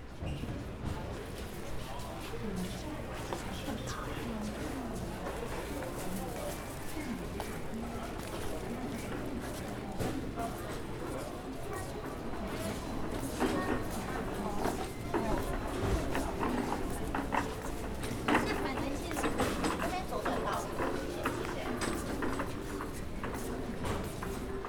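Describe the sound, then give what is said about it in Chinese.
Railway station concourse ambience at the Taiwan Railway (TRA) side of Taipei Main Station, Taiwan: a steady wash of overlapping voices and footsteps with scattered clatter, cleaning staff pushing a cart, people asking directions, an escalator nearby; growing slightly louder and denser midway before settling again. “來去台北車站逛逛-讓你耳花撩亂的聲音風景”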